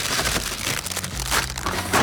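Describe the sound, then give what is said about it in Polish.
Loud, continuous crinkling of two plastic delivery bags, brought by a courier and holding chips, being opened and handled: a dense rustling crackle with brief sharper crunches, and no voices over it. “Dobrze, otwieramy to, no, popatrz. Dostawca przywiózł dwie torby, w których są Tu mamy tak, ASMR.”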